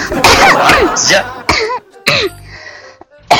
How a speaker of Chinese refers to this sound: 等会儿，我我先咳嗽两声。